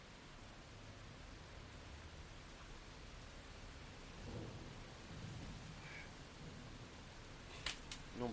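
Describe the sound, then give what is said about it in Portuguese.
Steady heavy rain hisses continuously, heard from a balcony, with a low rumble swelling briefly midway and a couple of sharp clicks near the end. There is no talking. “Tá chovendo pra caceta.”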